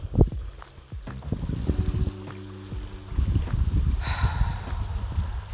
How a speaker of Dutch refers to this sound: Dit is dus stromend water wat je hoort. Ik hoop dat je het kan horen daar word ik heel blij van. Dat geeft mij een onwijs goed gevoel.